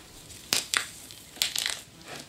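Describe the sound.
A person imitates the skin being pulled off a rabbit: a few sharp, wet ripping and crunching bursts in an uneven rhythm, fairly loud, with no speech.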